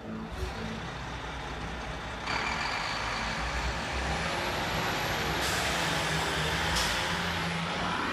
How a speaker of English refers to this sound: I got some buses outside with their air brakes or whatever compression thingy is going on.